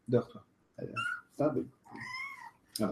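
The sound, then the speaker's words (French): A cat meows a couple of times, drawn-out and tonal, alternating with short bursts of a person talking. “C'est un chat, hein. c'est pas un oiseau, je vous jure.”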